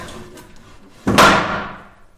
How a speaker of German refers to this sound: unsere kleine Kapelle besticht natürlich vor allen Dingen durch ihre Ausstattung. Das Chorgestühl, was man hier auch hört.